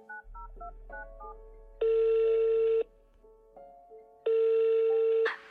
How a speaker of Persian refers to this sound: تلفنشو از جیبش در آورد و یه شماره گرفت